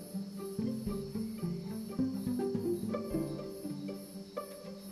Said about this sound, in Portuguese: Tem pessoas andando pela rua, os grilos aqui estão cantando, os pássaros às vezes cantam do alto da árvore nessa noite.